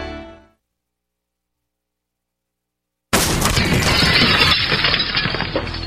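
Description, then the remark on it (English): After a few seconds of silence, a burglar abruptly kicks in the door of a dark house that looks like no one is home, with a loud crash followed by continuous splintering and breaking noise that carries on to the end. “That's what it sounds like when a burglar kicks in the door of a dark house that looks like no one is home.”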